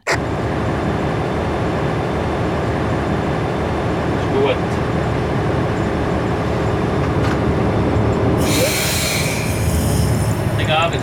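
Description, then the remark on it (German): A train's steady, loud rumble fills the scene at Frutigen railway station at 3:02, with a faint muffled voice underneath and a sharp hiss of released air breaking in near the end. “3.02 Uhr Bahnhof Frutigen.”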